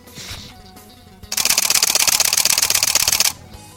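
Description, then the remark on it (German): A Canon EOS 7D camera shutter firing in burst mode: a rapid, even stream of sharp mechanical clicks lasting about two seconds, fairly loud, after a moment of near-quiet with a few faint handling sounds. “Das war eine Canon EOS 7D im Burst Mode.”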